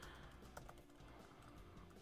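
Rapid, uneven clicking of keys on a computer keyboard as messages are typed, fairly quiet, with a steady background hum and no voices.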